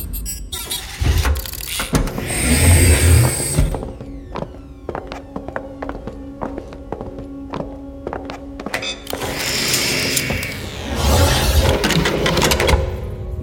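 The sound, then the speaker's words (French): An elevator in the Luthor runs with a mechanical whir and rumbling hum, then a long series of regular clicks and ticks over a steady low tone, before the motor noise surges again. “Je vous en prie, montez dans l'ascenseur.”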